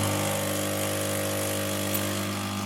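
An espresso machine running with a loud, steady motorized whir and buzzing hum, unchanging in pitch and volume throughout, with no voices.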